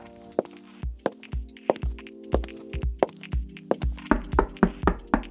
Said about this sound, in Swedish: Eh, så ja, du får väl knacka på nu då.